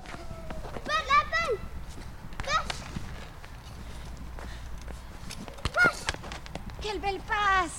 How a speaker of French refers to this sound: C'est la récré à l'école des étangs. … ne tient pas en place, écoutez-le jouer au foot avec sa professeure.